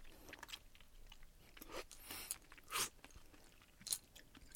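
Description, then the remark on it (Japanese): Soft, irregular chewing on sake-steamed asari clams, with several short crunchy, wet bursts and faint clicks spread over a few seconds. No one speaks. “これ、とわに食べてられますね。”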